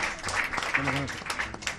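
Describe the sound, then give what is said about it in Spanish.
An audience at a live show with musicians applauds, thanking an artist drawing live, in a dense, steady wash of clapping that lasts throughout, with a brief voiced shout or cheer rising over it midway. “Gracias, sí, claro, vamos, un aplauso.”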